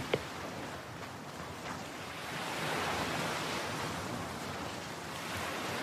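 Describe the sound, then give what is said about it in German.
Soft ocean surf washes steadily onto a beach, a broad continuous hiss that swells slightly midway as a wave rolls in, with no voices present. “Du hörst das sanfte Rauschen der Wellen, während sie über den Strand und deine Füße sanft hinüberrollen.”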